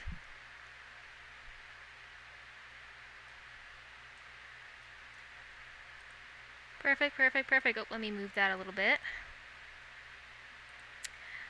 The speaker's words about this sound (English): do think I hear your fan in the background. Is it super distracting or no? No, this is like white noise. Okay, perfect, because I kind of need it because it's hot.